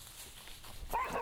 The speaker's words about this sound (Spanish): Llego a una quinta en Buenos Aires donde soy recibido por un montón de perros.